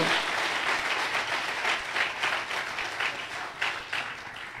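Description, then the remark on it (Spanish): A church audience applauds the Lord steadily during a worship gathering, a dense wash of many hands clapping together, sustained without a break and fairly loud, with no voices standing out. “Aplaude al Señor de la gloria.”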